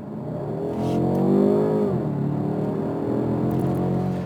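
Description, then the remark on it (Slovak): A car engine revs up as it accelerates, its harmonic whine rising and dipping, loud throughout with a steady low rumble underneath. “Ale tu je ten zvuk taký divokejší, ja mám pocit, ako som mal ja v kupečku.”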